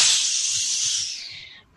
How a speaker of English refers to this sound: She takes the hammer, this uh, giant glowing hot piece of metal that she puts in this bucket of water